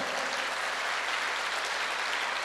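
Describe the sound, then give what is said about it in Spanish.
An audience at a church service applauds the Lord steadily, a dense wash of many hands clapping at once with no break, sustained at an even, fairly loud level throughout. “Vuelve a darle ese fuerte aplauso al Señor.”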